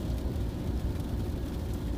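Steady road rumble from a moving car driving around a bend between Braga and Guimarães, a deep continuous drone of engine and tyre noise with no voices, holding an even level throughout.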